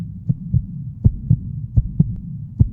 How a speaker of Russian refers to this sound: Но удары звучали все громче, громче. Казалось, сердце вот-вот разорвется, и тут у меня возникло новое опасение. Ведь стук мог услышать кто-нибудь из соседей